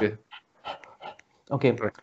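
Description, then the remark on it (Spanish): A person imitates a dog panting after running, with a string of short, breathy, partly voiced puffs in an uneven rhythm, moderately loud. “Los demás hacen algo, en inglés se llama panting, en español le llaman jadeo.”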